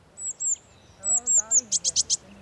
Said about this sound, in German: sondern indem sie die Bäume pflanzen, auf denen an diesem Nachmittag Blaumeisen zwitschern.